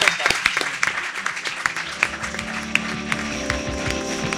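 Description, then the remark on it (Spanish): A crowd that has filled the venue applauds for an applause meter, with many sharp, irregular hand claps layered into a dense, steady patter, mixed with a low hum of voices and cheering. “Un Aplausómetro. El aplausómetro. Vamos a contar, vamos”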